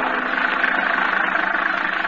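A car engine runs on a lonely country road at night during a storm, with a steady, continuous drone, fairly loud, holding an even rumble throughout with no voices or other sounds.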